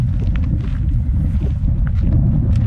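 nature, wind blowing outdoors

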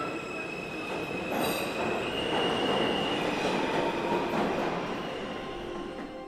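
vehicle, subway train riding

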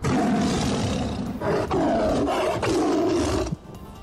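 animal, tiger roar

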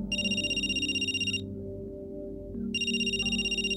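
signal or alarm, phone ringing

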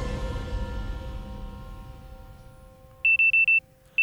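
household object, alarm clock ringing

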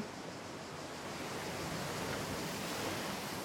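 nature, sea waves

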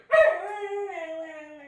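animal, dog howling and barking

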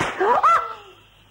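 impact, slap across the face

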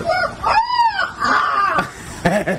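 bird, rooster crowing

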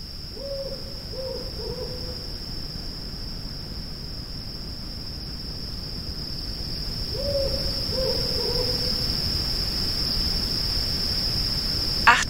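bird, owl hooting

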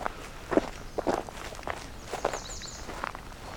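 human body sound, footsteps walking outdoors

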